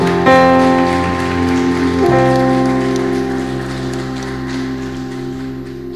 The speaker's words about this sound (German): Amen. Amen. Können wir den Herrn einen Applaus geben?